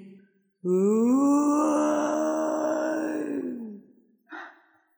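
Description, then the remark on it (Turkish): A drunk man lets out one long, loud, anguished groan lasting about three seconds, voiced and sagging in pitch toward the end, followed by a short breathy grunt. “Yalnız sıkıntılı, adamın içini kurutan uzun bir”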